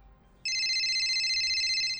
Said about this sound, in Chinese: 这时，他的手机响了